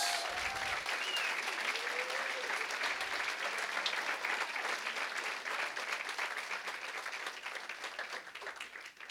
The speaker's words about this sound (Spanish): ¿Por qué no le da un aplauso a nuestro Dios?